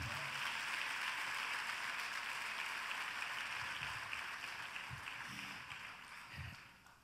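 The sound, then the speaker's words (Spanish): An audience applauding together for the Lord, a dense, steady wash of clapping that holds for several seconds and then gradually thins and fades toward the end. “Dale un aplauso al Señor.”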